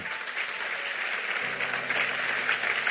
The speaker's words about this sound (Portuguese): Acredite, pode aplaudir a Ele, que Ele é muito bom.